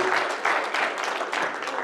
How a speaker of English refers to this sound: Thank you for your service. Give them a round of applause. Thank you, ushers, for all you do.